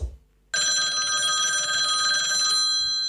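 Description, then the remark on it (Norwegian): A telephone rings out on an outgoing call: one steady, bright electronic ring lasting about two seconds after a brief silence, loud, with no voices. “du har tatt en telefon til”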